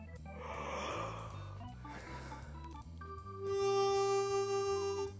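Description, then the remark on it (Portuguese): A long, airy inhaling breath drawn through a harmonica, like a yawn, that after a few seconds becomes a steady, sustained reed tone, with faint low music underneath. “Como se eu estivesse bocejando.”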